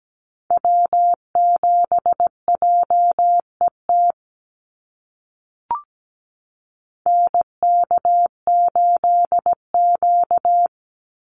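Morse code sent at 17 words per minute on a single mid-pitched tone, keying North American SOTA activator callsigns. A run of dots and dashes is followed by a pause broken by a brief click, then another keyed sequence.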